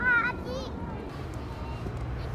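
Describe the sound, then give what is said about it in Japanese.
A crowd of about ten children playing, one high-pitched shout at the start, then a steady jumble of overlapping young voices and bustle throughout. “場所移動しましたなんか気づいたら子供が10人くらいいてなんか大変だった”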